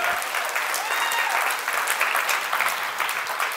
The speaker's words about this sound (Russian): Давайте Ему дадим сегодня аплодисменты.